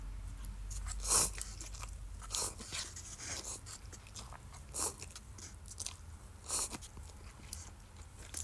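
Crunchy chewing of a wasabi-scented, salt-ramen-flavoured snack from Seicomart, a Hokkaido convenience store chain, with repeated crisp bites and mouth noises at an uneven rhythm, each crunch sharp and bright over a low background hum, no talking.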